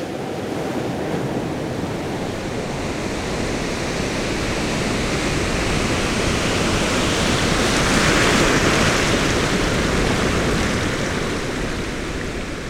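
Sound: ocean waves surf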